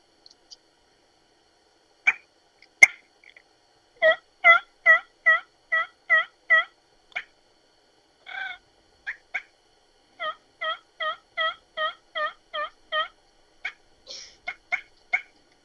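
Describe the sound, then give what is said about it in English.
Turkey sounds blown on a two-reed bat wing call: a few sharp clucks, then two steady runs of six or seven raspy, evenly spaced notes and a quick closing burst, with no talking. “That's our uh, two reed bat wing. I like it the purr is, uh, on that it's a real, real easy to run call.”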